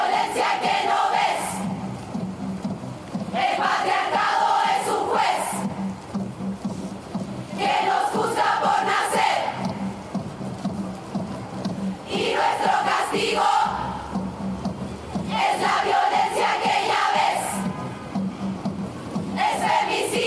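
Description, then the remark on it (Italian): A large crowd chants a feminist protest song in unison outdoors, loud rhythmic phrases repeating in bursts every few seconds, voices blending into a roaring mass with a steady background din between chants. “Sentiamo adesso questa canzone che magari molti di voi l'hanno sentito nelle ultime settimane.”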